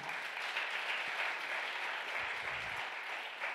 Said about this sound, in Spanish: Denle un aplauso fuerte a papá.